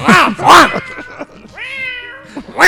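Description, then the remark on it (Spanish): A cat meows repeatedly and loudly, several drawn-out, wavering cries in quick succession, with one long sustained yowl in the middle. “Al gato este parece que lo. Lo echaron de la sala.”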